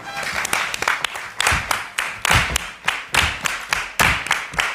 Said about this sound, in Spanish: estamos ah, felizmente en Sevilla, estamos en la Fundación Cajasol, en un teatro bombonera precioso, en el que el público sevillano que nos acompaña nos va a obsequiar con un aplauso por sevillanas. A ver cómo suena eso, a ver, a ver, a ver.